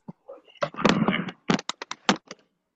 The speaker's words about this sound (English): Oh, sorry, I was uh, fixing my bike because it got knocked over. Oh, okay. But he's just, but he's just making so much noise.